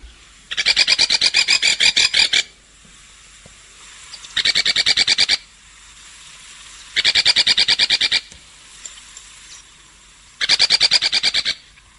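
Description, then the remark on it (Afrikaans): A cardinal woodpecker in a garden calls four times, each a dry, rapid rasping rattle lasting one to two seconds, separated by brief pauses, clear against a quiet background. “ek vermoed die voel in haar tuin is die kardinaal speg. Nou ja, Kom ons luister gou hoe hy klink.”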